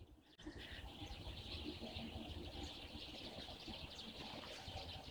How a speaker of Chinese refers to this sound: 能听见它们的叫声吗？所以我经常说，每个冬天麻雀都在开会，你们听。对我，我面前差不多有上百只的麻雀，能听到吗？很美